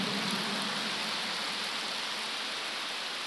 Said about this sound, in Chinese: 哎呀，好了，好像我跟你们要鼓掌一样，我没有跟你们要鼓掌。你看你们停不下来了，其实你们是锻炼。有一种锻炼叫鼓掌，因为十指连心，心开心才会鼓掌。